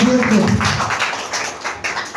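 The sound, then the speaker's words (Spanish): A church audience applauds the Lord with steady, dense clapping that stays loud throughout, and a brief voice is heard at the very start. “Vamos a dar ese fuerte aplauso al Señor.”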